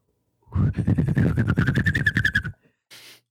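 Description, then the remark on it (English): A person whistles a warbling, bird-like call close into a microphone, rapid pulsing trills riding a steady high tone for about two seconds, loud and distorted, ending with a short breathy hiss. “Just real quick, if you're gonna whistle into your mic, you don't need to get so close.”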